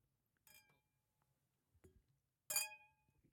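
Glasses clink together in a toast before a New Year's speech: a first bright chime, a duller tap, then a louder ringing clink that rings on briefly, with no talking.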